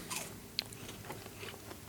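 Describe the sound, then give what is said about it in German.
A crisp bite into food with a sharp crunch, followed by a few softer chewing and crunching sounds. No one speaks. “Das ist es easy, wenn ich so savage-mäßig da reinbeiße.”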